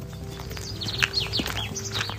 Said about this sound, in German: Es ist früher Morgen. Die Sonne scheint, Vögel zwitschern und unter strahlend blauem Himmel sind wir unterwegs in Luzern zu unserem nächsten Stopp.